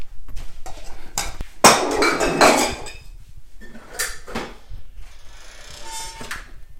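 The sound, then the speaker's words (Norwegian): Four drinking glasses held in one hand clink and knock together as they are gathered up, a burst of bright, busy clattering in the middle followed by a few scattered ringing taps and softer handling noises. “Nå har jeg fire glass i hånda.”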